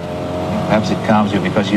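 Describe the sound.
A sports car engine hums steadily from inside the moving car of writer Françoise Sagan, lent by the manufacturer, during a 1989 BBC report, a continuous drone with people talking over it.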